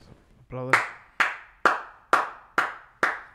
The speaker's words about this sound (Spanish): ¿Por qué aplaudes tanto, cabrón? Con uno es más que suficiente.